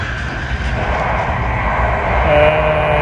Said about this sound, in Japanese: えー、今新幹線ですね、えー、今長野行きの新幹線うるさいですねこれ